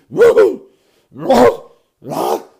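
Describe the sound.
A man mimics his own sneezes with his voice: three loud, forceful vocal bursts, each about half a second long, separated by short silent pauses.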